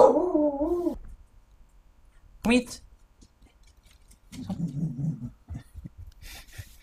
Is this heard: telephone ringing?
no